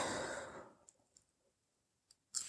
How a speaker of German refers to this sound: Ja, und da ist jetzt auch wie so ein tieferes Atmen.